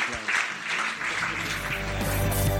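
A church audience breaks into steady applause after a closing blessing prayer, a dense, continuous patter of many hands clapping at a fairly loud, even level, with a few voices and low tones mixed in beneath.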